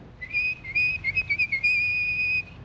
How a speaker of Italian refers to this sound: lei ha trovato lavoro come una specie di badante dell'epoca, aiuto sarta, cameriere, eccetera, da Ugo Tognazzi, che è un sarto bravissimo ma sordo muto, che quindi parla fischiando e a gesti.